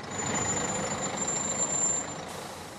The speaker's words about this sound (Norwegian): Og så kommer bussen til endeholdeplassen i Bristol. Ennå er den den eneste av sitt slag, men tilbudet av menneskelig avfall vokser.